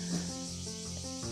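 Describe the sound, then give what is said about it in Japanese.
A steady, high-pitched buzz of cicadas drones faintly in the background throughout, heard while someone speaks into a smartphone at home. It is unbroken, with a low tonal hum beneath it and no one talking. “もう家でスマホに向かって今喋ってるんですけど洗濯機のアラームが鳴ったりですね セミが鳴いたりですね まあいろんな状況があるわけですけれども家から配信ができるってすごいなと思っていて”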